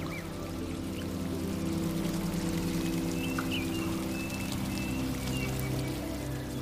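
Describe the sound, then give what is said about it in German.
A steady, continuous rush of a waterfall pouring into a small, warm lake ringed by stones, with a dense even roar and faint splashy detail throughout and no voices. “und vielleicht möchtest du auch unter dem Wasserfall eine kleine Dusche nehmen.”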